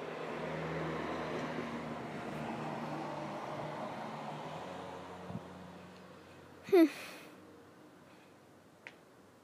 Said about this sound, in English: Sorry about cars.